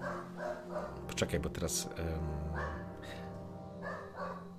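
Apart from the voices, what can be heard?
dog barking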